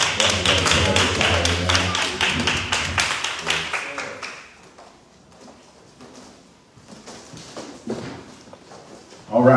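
audience clapping hands

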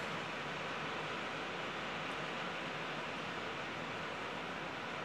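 heavy pouring rain

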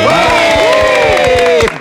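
audience applause and cheering

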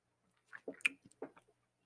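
sipping tea

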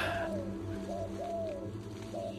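turtle dove cooing

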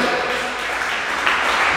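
audience clapping hands

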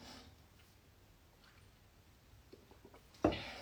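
sipping water

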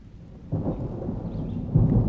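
rain falling

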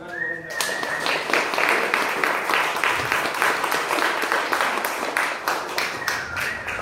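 audience applause

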